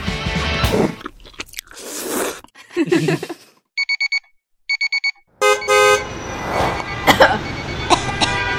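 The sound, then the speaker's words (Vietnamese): Two quick bursts of rapid alarm-clock beeping, then loud, blaring car horn honks repeating over busy street noise, after a few seconds of scratchy, crunchy rustling. “tiếng chuông báo thức, tiếng còi xe, tiếng máy chấm công không chịu nhận vân tay.”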